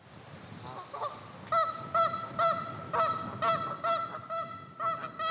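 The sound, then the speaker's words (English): A flock of geese perched on the banks of Lincoln Lake in Northwest Arkansas honks repeatedly on a spring morning in an irregular rhythm, several loud nasal calls overlapping over a soft outdoor background with no talking. “A gaggle of geese squawked this beautiful spring morning, perched on the banks of Lincoln Lake.”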